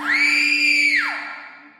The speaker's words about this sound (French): Je suis en train de dormir. C'est calme. C'est doux mais tout à coup un hurlement.